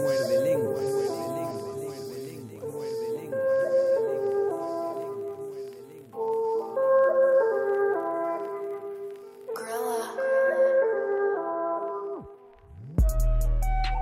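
A song with several voices singing together in sustained, harmonized lines at a steady, fairly loud level. The music cuts off abruptly near the end, followed by a brief burst of a different sound.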